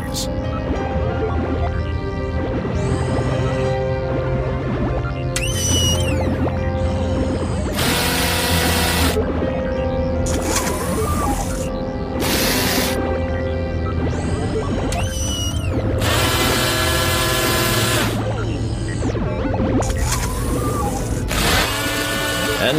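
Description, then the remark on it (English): Loud machinery of a computer-controlled robotic operating mechanism whirs and drills during a surgical operation, in repeated harsh bursts over a steady droning hum, with high whines sweeping up and down between the grinding surges. “I've programmed this computer, connected to this robotic operating mechanism, which has the speed and accuracy of a hundred surgeons to do the actual job”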